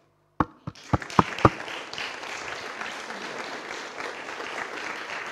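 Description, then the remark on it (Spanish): A handful of separate, sharp claps quickly swell into steady audience applause, a dense, fairly loud patter of many hands that keeps going without any talking. “Un aplauso para ti”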